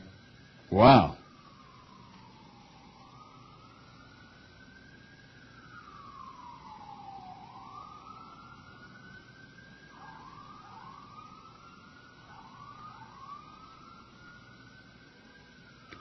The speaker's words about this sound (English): Do you hear those sirens again? Not yet. You can't hear them? Not yet. There they are.